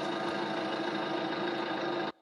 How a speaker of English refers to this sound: I'm guessing a car engine. Yes, actually you got it.